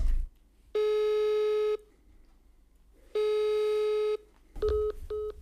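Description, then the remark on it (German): A phone call to a town hall sounds two long, steady electronic tones with pauses between, then switches to short, rapid beeps like a busy signal as the call is rejected. The tones are clear, with no voices. “Das Rathaus verweigert das Gespräch. Das ist nicht wahr. Die haben, die dich, haben dich blockiert.”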